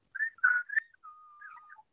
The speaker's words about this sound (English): Yeah, that's a magpie.